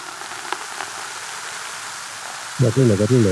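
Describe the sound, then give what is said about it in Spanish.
A steady, bright fizzing hiss of freshly opened champagne, broken by a couple of small sharp clicks, before a voice starts talking briefly over the bubbling at the end. “voy a sacar el champán, es que me gusta mucho sacar este sonido.”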